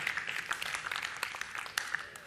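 An audience claps steadily for a couple of seconds, many hands producing a dense, even patter of applause, moderately quiet, with no one speaking over it.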